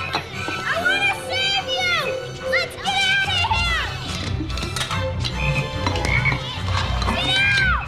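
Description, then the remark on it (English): Frogs croak in a steady low chorus while excited children's voices chatter and squeal over them, a busy, continuous commotion with no pauses, in a film scene where the boy Elliot frees all the frogs to save them from being dissected. “and then when before the quote unquote good scientists show up, they literally have Elliot freeing all the frogs to save them from being dissected.”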